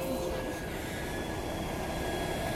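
A tractor drives past, a steady, loud low rumble of diesel engine and machinery with a faint tonal whine on top, continuous and without speech.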